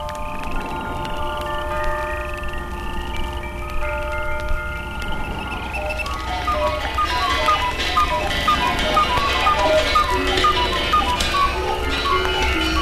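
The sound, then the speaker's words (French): A loud jumble of all the pendulum clocks in a house ticking and chiming at once, bright ringing tones and steady ticks piling up, the din growing denser and busier partway through with no voices. “À cet instant, toutes les horloges de la maison se mirent à sonner.”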